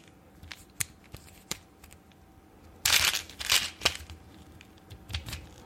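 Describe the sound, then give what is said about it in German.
Plastic clicks and rattles as someone fiddles with a small plastic chewing gum container, the kind that fits in a car's cup holder, with a burst of rustling and cracking midway as it is pried open. No one speaks. “diese Plastikpackungen, die man, die so perfekt in den Getränkehalter am Auto passt.”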